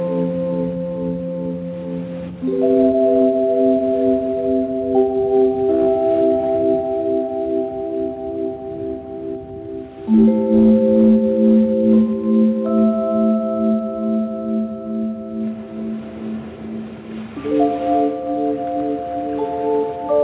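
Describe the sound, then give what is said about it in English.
Slow, calm meditation-style music of sustained, shimmering bell-like tones, with the held chords shifting smoothly every few seconds at a steady, moderate volume and no voices. “This is uh, … uh, from … new album, …”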